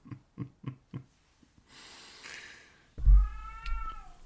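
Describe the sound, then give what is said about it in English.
A series of short, soft chuffing sounds, then a hissy breath, followed by one long, loud cat meow with strong wavering harmonics. No one is talking. “cat or baby? Before we, oh, that's cat.”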